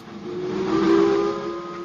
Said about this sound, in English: The nostalgia of the train. The nostalgia of the whistle of those powerful beasts.